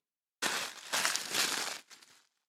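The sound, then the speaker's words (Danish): Paper crinkles and rustles as a paper-wrapped beer can, Amager Bryghus The Red Hetman, an Imperial Baltic Porter, is unwrapped, in about two seconds of loud, bristly crackling bursts that swell and ease off, with no talking. “der står jo en øl foran dig i papir”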